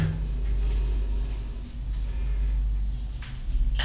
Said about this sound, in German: Genau, jetzt wird Zähne geputzt. Also ihr hört jetzt die Nerven der Zahnbürste. Also ich finde die Nerven.